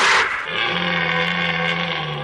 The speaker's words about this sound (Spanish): Vamos, esto es comparable a la, berrea del ciervo y a los combates de las cabras monteses.